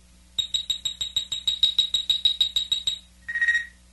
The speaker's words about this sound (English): And this is the story of Star Trek four: The Voyage Home. You can read along with me in your book. You will know it is time to turn the page when you hear the communicator beep like this.